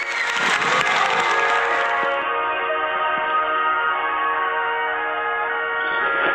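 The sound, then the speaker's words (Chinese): A short burst of clapping and crowd noise welcoming singers about to perform, lasting about two seconds, then it gives way to sustained, steady musical tones that carry on to the end. “好的，来，掌声欢迎。”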